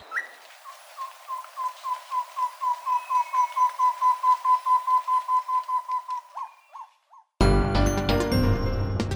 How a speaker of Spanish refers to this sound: El trino del tobacá común forma parte del Banco de Sonidos de Aves Colombianas recopilado por el Instituto von Humboldt y la Universidad de Cornell.